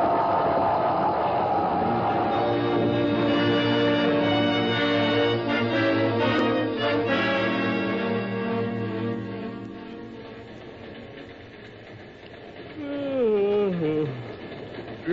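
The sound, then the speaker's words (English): A milk train rumbles past on rails with a dense mechanical clatter and squealing tones, fading somewhat before a rising, swooping whistle-like squeal near the end. “Uh, milk train coming.”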